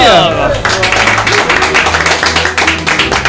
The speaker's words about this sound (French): Salut vous bizarre de s'applaudir soi-même. bah ouais, il faut.